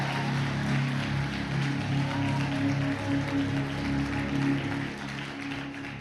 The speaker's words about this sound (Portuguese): Fala aí, eterno, dá um glória a Deus e aplaude Jesus aí, meu irmão.